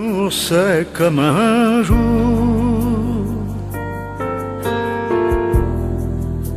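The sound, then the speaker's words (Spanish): A French-language song collaboration plays loud, a singing voice with wavering vibrato opening over the band before the accompaniment settles into sustained chords and a steady low bass. “algunas colaboraciones y una de ellas es en francés, con uno de mis ídolos absolutos”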